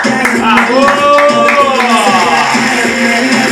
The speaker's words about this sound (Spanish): Así que lo vamos a recibir con su música y con un fuertísimo aplauso.